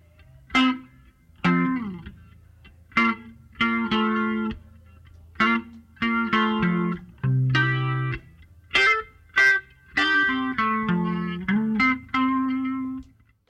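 An electric guitar played through a rotating Leslie speaker: a run of separate chords and notes with a swirling, warbling shimmer, fairly loud, with short gaps between phrases and no voices.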